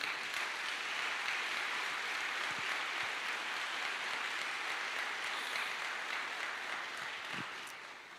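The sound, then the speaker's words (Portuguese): A church audience applauds after a prayer in a sustained, dense burst of clapping lasting several seconds, holding steady before gradually tapering off near the end. “Você pode aplaudir só mais uma vez?”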